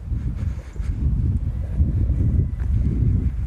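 Steady wind buffets a microphone with a large furry windshield outdoors on the coast near the Plage des Dames, a continuous low rumble with gusty surges that swell and fade, fairly loud, with no voices.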